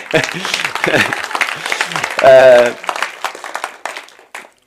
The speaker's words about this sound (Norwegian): hvis dere skal klappe, så klapp ordentlig.